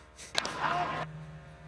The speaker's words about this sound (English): I'm going to play for you just the sound of ball hitting bat.